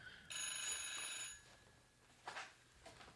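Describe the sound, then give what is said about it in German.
An old red analog FETAP landline telephone bell rings in a single bright, metallic burst lasting about a second, then stops, leaving quiet room sounds and a couple of faint rustles. “Also jetzt klingelt hier mein Telefon.”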